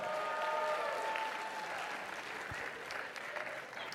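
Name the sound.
audience cheering and applause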